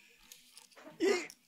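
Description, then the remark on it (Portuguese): A loose chair in a small cubicle gives one short, low creak with a groaning, almost flatulent tone during a live stream, lasting a fraction of a second after some faint rustling. “Isso é a cadeira aqui, ó.”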